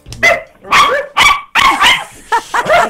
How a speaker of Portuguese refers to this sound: E a Renascença falou ao telefone com este animal que é mistura chihuahua Não com uma pode. raça que eu desconheço, que é Shizu. Vamos ouvir.